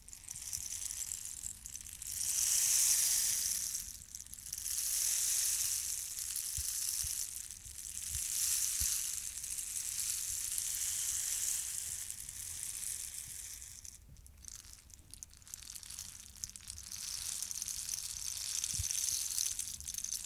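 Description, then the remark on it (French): A rainstick made of a dried cactus branch is tilted back and forth, its seeds trickling in a steady, rain-like hiss that swells and fades in several long waves over twenty seconds, with no talking. “Ah, c'est pour ça que ça s'appelle un bâton de pluie.”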